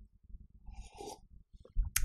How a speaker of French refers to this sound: Je prends une gorgée parce que là, je me suis énervé.